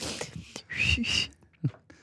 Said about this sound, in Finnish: Kauhean vaikea tähän pämpylään, kun tähän mikrofonipämpylään vihelteli. Tuo on suhistamista. Mä en ole tiennyt, että sä oot noin huono vihellä.